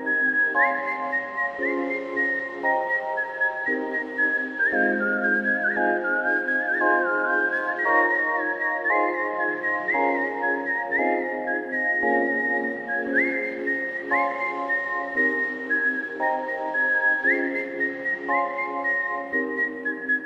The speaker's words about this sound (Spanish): Eh, ¿oyes este silbido?